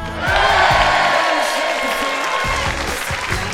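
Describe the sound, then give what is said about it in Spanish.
A crowd claps and cheers steadily for a few seconds, a dense wash of applause with whoops and shouting voices mixed in, loud throughout. “Oye, una de esas grandes noticias que se, que se merece un aplauso.”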